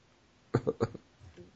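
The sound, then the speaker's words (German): A quick burst of three or four rasping coughs in rapid succession, fairly loud, trailing off into a faint murmur afterward. “Ich hättest, du, hättest du nicht gehustet, wäre es mir gar nicht aufgefallen.”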